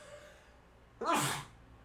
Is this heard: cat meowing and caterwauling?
no